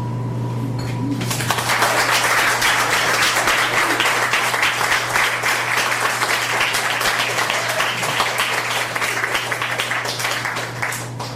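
A crowd bursts into sustained applause after a brief quiet moment, dense and steady clapping filling the room for about ten seconds before easing slightly at the end, with a low hum underneath.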